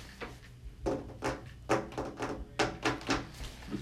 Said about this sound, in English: I like picture myself banging on my walls and my window, like with the back of my hand, like my fingertips, like, like hitting the back of the window, kind of like this sound.